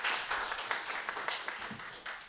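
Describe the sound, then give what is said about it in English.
An audience at the Denver Press Club applauds a panel at a talk on artificial intelligence, a steady wash of many overlapping hand claps at a fairly even level throughout, with no voices on top. “And a quick round of applause for our great panel who all donated their time just to come and talk about it.”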